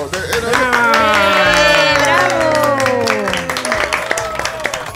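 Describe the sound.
A crowd claps loudly and steadily while several voices whoop and cheer in long, falling shouts; the cheering fades after a few seconds as the clapping thins out.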